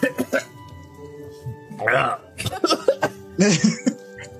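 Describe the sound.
Several throaty coughs in quick uneven bursts, some rough and voiced, separated by short pauses, with a few quieter vocal sounds in between.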